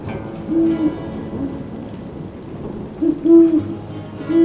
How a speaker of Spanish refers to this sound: Y de la nada, el sonido de un búho te invita a mirar hacia lo lejos.